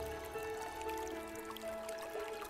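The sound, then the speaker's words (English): A small brook in a garden gurgles and trickles over pebbles toward the foot of a hill in a steady, continuous babble with bubbly splashes, fairly quiet, with faint sustained tones in the background and no voices. “And here ran a little brook, gurgling over the pebbles in a race to the foot of the hill.”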